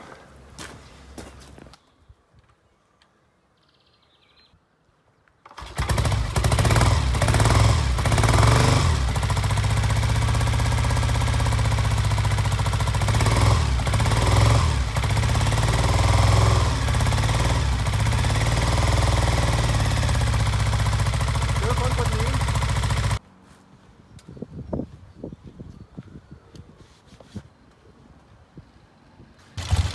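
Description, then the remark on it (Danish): The engine of a 1969 Daytona motorcycle in Copenhagen starts up and runs loudly for about seventeen seconds, a steady low rumble with revs rising and falling, then cuts off, leaving quieter clatter and shuffling. “En Daytona fra 1969. Og den kørte rigtig fint.”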